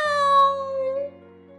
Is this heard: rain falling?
no